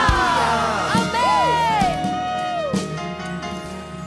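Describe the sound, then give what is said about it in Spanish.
A crowd of many voices shouts hallelujah and cheers together in a loud, sustained burst, with rising and falling whoops blending into a reverberant roar that fades slightly toward the end. “Pueden gritar aleluya.”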